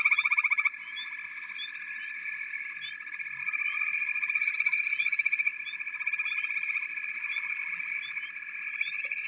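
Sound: frogs croaking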